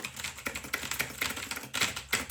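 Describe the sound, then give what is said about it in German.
Rapid typing on a computer keyboard, demonstrating how computer typing usually sounds in films: a dense stream of quick clicky keystrokes with a few louder taps, fairly quiet, with no talking. “genau dafür habe ich diese Tastatur.”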